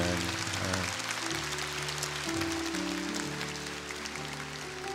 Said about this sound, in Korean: 우리 다 같이 박수로 격려하고 환영합니다. 네.